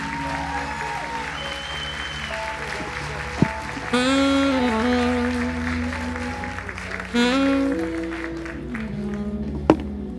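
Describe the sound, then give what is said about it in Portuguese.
A church audience applauds the Lord steadily for several seconds, a dense wash of clapping with sustained musical tones and brief vocal calls rising over it, plus a couple of sharp thumps. “Vamos aplaudir ao Senhor mais uma vez.”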